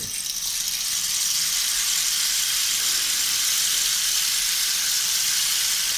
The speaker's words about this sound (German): Das ist dann zum Beispiel sowas wie ein äh, Rainmaker oder Regenmacher. Das ist hier so ein Rohr, äh, wo ganz viele kleine Plättchen drin sind. Und wenn man das halt so äh, umdreht, dann klingt das nach einem Regen.